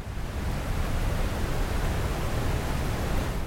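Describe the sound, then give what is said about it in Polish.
Steady brown noise with a deep, rumbling hiss, heavy in the low end like a waterfall, holding an even level throughout with no voices or other sounds. “Szum brązowy.”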